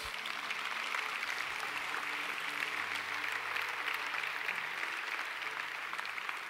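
An audience applauds the Lord Jesus at night, a dense wash of many hands clapping at once that holds an even, sustained level throughout, with a faint low hum beneath it.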